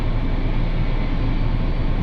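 A steady, dense rumble of a train in motion on the Tokaido Main Line in Japan, heard as from inside the carriage on the Atsuta to Nagoya to Ogaki run of a JR Central train, with a continuous low roar and faint rattling and no voices.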